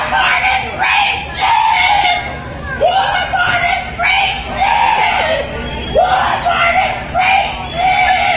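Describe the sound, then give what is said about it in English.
A woman on the ground wrestling with a police officer in a store screams loudly and repeatedly in long, strained bursts, over the constant din of the store crowd surrounding her with overlapping voices, recording on phones and laughing. “screaming at the top of her lungs”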